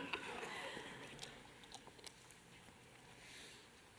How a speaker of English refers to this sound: I'll have a sip of my water now.